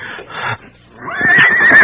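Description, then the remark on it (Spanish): A horse lets out a loud, shrill whinny with a wavering, quavering pitch in the second half, preceded by a brief breathy rustle and a short pause. “Ay, mi caballo.”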